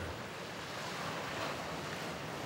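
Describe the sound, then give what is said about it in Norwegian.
A steady wash of sea swells rolls against a rocky shore of smooth, polished bare rock facing the open sea, at Ormhilleren on Rognøy by the sound between Rongeøy and Toftøy, a constant broad hiss with gentle swells and a light rumble of wind underneath, with no voices. “Og vi ser jo rett ut. Rett ut i havet.”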